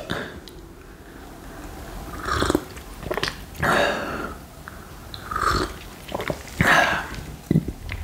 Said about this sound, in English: I'm gonna take another sip.